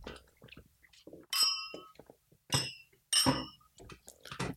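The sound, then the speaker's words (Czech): Glasses of Mtavruli, a dry white wine from Georgia, clink together in a toast, three bright ringing chimes spaced about a second apart, clear, with quiet low murmurs and small movements between them. “A na zdraví. A na zdraví.”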